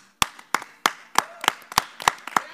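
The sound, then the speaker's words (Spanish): An audience claps steadily and evenly, around nine sharp claps in quick succession, fairly loud, with no voices over it. “No hace falta, no hace falta el aplauso, gracias.”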